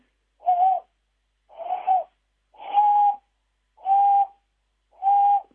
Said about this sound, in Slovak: teraz ešte myšiarky ušaté, tie sú schopné aj v tomto období ešte spolu nejakú borovicu okrásiť a zlietne sa ich tam 10-15 a ozdobia tú borovicu a oni sa ozývajú takým jemným.